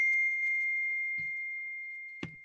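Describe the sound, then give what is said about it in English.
A steady, high electronic tone rings through the whole moment, opening with a few quick beeping pulses and later broken by two soft thumps, like a device's notification alert sounding with no one talking. “Sorry, we're getting notifications over here.”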